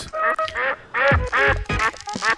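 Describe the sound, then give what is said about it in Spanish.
A duck quacks loudly, giving a rapid series of about seven or eight nasal, buzzy quacks in an uneven rhythm with no talking. “El pato, famoso pato.”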